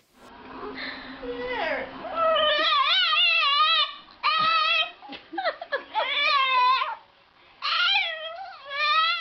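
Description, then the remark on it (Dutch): A pug, trained or self-taught to imitate a baby, yowls in a string of wavering, baby-like cries, loud, each wail rising and falling in pitch with short breaks between bursts. “een soort mopshond die ze hebben getraind of die zichzelf heeft aangeleerd om een baby te imiteren.”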